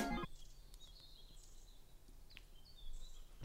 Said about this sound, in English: so funny to stop everything but the birds